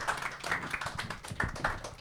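A live audience applauds, with dense overlapping hand claps and a few sharper individual claps standing out, steady throughout.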